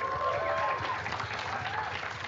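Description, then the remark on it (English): A crowd applauds steadily for a couple of seconds, a dense wash of clapping at moderate volume, with a thin whistle-like tone briefly riding over it near the start, as a guest is welcomed for audience Q and A at a live show. “Everyone, give a round of applause to Dusty.”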